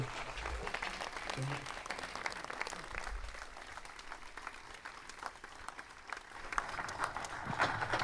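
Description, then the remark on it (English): A crowd applauds steadily for about eight seconds for alumni musicians of a scholarship scheme for classical and traditional Irish musicians in Britain; dense overlapping claps at a moderate, even level with no one speaking over them. “So if I could have a, a big round of applause”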